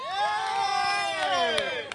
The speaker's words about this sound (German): Ich muss dazu sagen, das ist der einzige Tisch, der hier in Mitte jubelt.